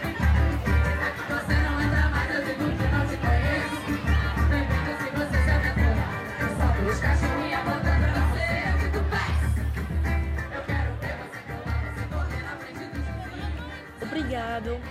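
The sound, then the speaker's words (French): Loud samba street party in Brazil with a steady, driving samba beat of pounding drums, layered with the dense roar and chatter of a large crowd, continuous throughout. “au rythme de la samba, avec tout le monde toute la nuit”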